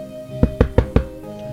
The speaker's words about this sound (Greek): Μήνας δεν πέρασε, χτυπάει την πόρτα του σπιτιού τους μια αρκούδα.